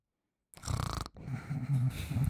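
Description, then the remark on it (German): Raspy human snoring recorded in the morning: a rattling snore, a brief pause, then another long, buzzing snore, fairly loud with no talking. “Ich habe dich heute Morgen versucht aufzunehmen beim Schnarchen.”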